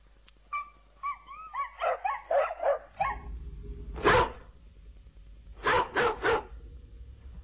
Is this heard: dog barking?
yes